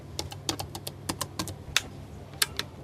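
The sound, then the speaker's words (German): Rapid, uneven key presses on the ten-key numeric keypad of a spacecraft computer used to enter flight parameters, a quick run of sharp plastic clicks over a low steady hum, with no one speaking. “Darunter haben wir ein Keypad, eine Zehner-Tastatur von einem Computer, in denen wesentliche Flugparameter eingegeben werden können.”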